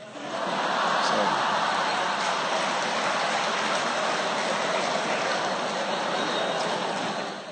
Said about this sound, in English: You're not supposed to applaud, but sometimes professors do need to be put in their places.